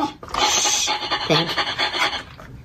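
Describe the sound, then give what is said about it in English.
Quick, breathy dog-like panting done by a human voice rubbing their nose as a voiceover trick, fairly loud, a steady run of short huffing breaths over a couple of seconds with no talking. “you want me to teach you a, a, a voiceover trick for sounding like you're a dog panting?”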